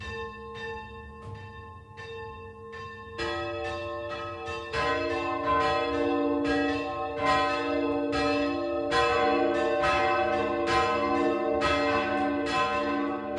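The four church bells of the Catholic St. Vitus Church in Kupferberg near Kulmbach, Upper Franconia, Germany, ring together for the 12 o'clock midday ringing. They enter one after another until a dense, overlapping peal of deep and bright tones builds into a loud, steady clangor with no voices.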